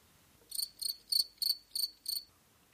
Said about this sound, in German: Ich, ich äh, habe hier nur ein bisschen Pause gelassen, damit ich da das Grillenzirpen einsetzen kann.